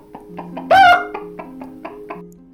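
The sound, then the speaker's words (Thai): A rooster lets out a short, loud crow with all its might amid a steady run of sharp, rhythmic clucks, with no talking. “ดังนั้นข้าก็เล็กขันด้วยกำลังทั้งหมดที่ข้ามี ในตอนที่ข้ายังสามารถทำได้กระตอกกระตอก”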